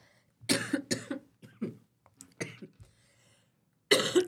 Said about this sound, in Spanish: Ay, ay, ay. Una disculpa, pero está en vivo y pues tenemos tos, ¿verdad? No se preocupen.